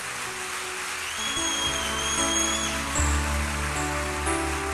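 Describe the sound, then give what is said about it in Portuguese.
A church audience applauds the Lord during a sermon in a dense, steady wash of clapping that holds for several seconds, with sustained keyboard chords playing underneath and a few thin, high whistles cutting through. “Pode aplaudir ao Senhor, porque é o Senhor quem faz isso.”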